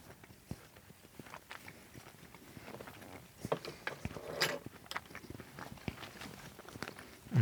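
Someone chewing dried tomatoes: a steady run of soft, irregular crunchy clicks and smacks over several seconds, with a louder, denser burst midway and no talking.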